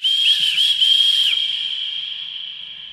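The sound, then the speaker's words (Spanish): A loud, piercing human whistle holds a steady high note with a couple of quick pitch flicks, then slowly fades out over a few seconds, with no voices. “Piensa cómo chiflan en tu colonia.”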